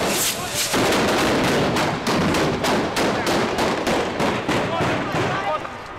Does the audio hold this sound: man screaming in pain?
no